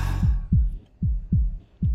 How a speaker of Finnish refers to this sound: Sun sydämessä syke.